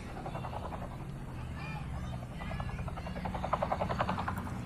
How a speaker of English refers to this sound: I didn't have to look up to know that there were helicopters flying around and surveilling the city.